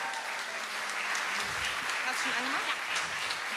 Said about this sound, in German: Und ihr müsst noch ein bisschen länger klatschen, weil sie ist noch nicht oben.